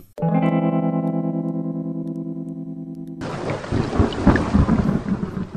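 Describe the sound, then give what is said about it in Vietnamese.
A sustained, droning musical chord holds for about three seconds, then cuts abruptly into a loud, dense roar of heavy rain with deep rumbling thunder. No voices. “Gớm, năm nay bão to thế nhỉ?”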